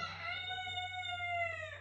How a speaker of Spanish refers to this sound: ¿Ves? Mi gallo piensa como yo.